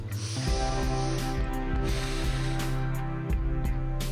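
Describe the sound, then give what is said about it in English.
A slow, airy breath is drawn in and then let out, breathy, over a steady low musical drone with no one speaking. “If you need to take a breath, I need to take a breath.”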